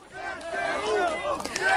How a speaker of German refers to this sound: Jubel für die ukrainischen Soldaten im Zentrum von Cherson. Der Moment, auf den die Menschen hier seit Monaten gehofft haben. Auf die Befreiung ihrer Stadt.